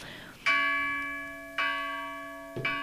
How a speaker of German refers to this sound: das war der, der, der Glock, die Glocke. Jetzt ist Weihnachten.